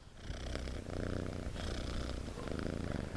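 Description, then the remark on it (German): A cat held up to the microphone purrs steadily and very close, a continuous low rumbling throb with rhythmic pulses, loud and sustained with no talking over it. “Falls ihr da Schnorren hört oder irgendwelche Katzen, ich kann das mal ranhalten.”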